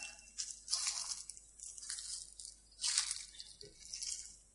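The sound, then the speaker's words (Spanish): Footsteps crunch through dry brown, yellow, orange, red and green autumn leaves in Mataleñas park, a steady series of rustling, crackling steps, moderately quiet, with no voices. “De los colores del otoño, marrón, amarillo, naranja, rojo y verde, y nos encantó el sonido que hacían al pisarlas.”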